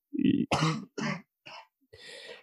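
A few soft, light coughs and throat-clearing sounds in short separate bursts, with no talking.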